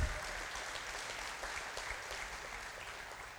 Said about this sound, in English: Man, give it, yeah, you guys got to clap for them.